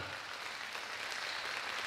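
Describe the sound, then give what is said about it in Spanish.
During a sermon, a crowd claps steadily as applause given to the Lord, a dense, even wash of many hands with no voices, sustained at a constant level for the whole couple of seconds. “Déselo al Señor ese aplauso si se lo va a dar.”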